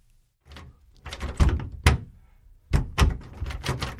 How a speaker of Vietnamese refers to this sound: Sao lại không mở được cửa nhỉ? Hình như ai đó đã khóa ngoài